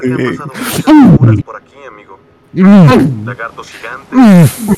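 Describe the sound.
A voice imitates heavy, raspy breathing right into a microphone: three loud wheezing bursts separated by short, quieter pauses.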